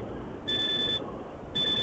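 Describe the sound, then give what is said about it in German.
A truck's electronic beeper sounds in steady tones, a high-pitched pulse about half a second long, a pause, then another, over a low background rumble. “das ist jetzt bei mir gerade hier nur der, mein, mein LKW, der, der piept gerade vor sich hin, ich weiß nicht genau warum.”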